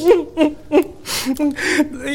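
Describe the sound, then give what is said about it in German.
A child cries and whimpers in a series of short, rhythmic sobbing bursts, broken by breathy, shuddering intakes of air. “warum weinst du denn jetzt?”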